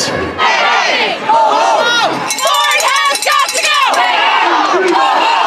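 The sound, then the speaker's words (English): A large crowd of over 10,000 teachers, students and parents shouts and chants loudly at a rally at Queen's Park, Ontario, in the afternoon, protesting education reforms by the Ford government; many voices overlap in a dense, continuous roar with rising yells and sustained cries throughout. “Over 10,000 teachers, students, and parents gathered here protesting education reforms by the Ford government.”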